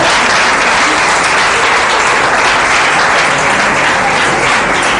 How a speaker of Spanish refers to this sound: Un aplauso, claro que sí. Aleluya.